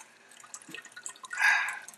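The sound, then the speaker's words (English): Water splashes and drips at a sink while dishes are washed, with scattered small splashes and then a louder, hissing gush of running water near the end. No one speaks. “I'm just cleaning dishes, so.”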